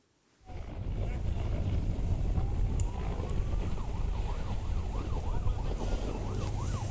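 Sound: emergency vehicle siren wailing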